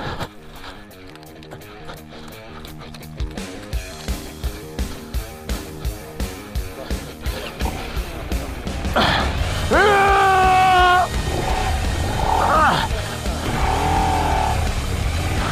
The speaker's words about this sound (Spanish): Suenan motores. Solo oigo motores al ralentí. Oigo una moto luchando por agarrar. ¡Oh! Se ha apagado un motor.